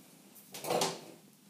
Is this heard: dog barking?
no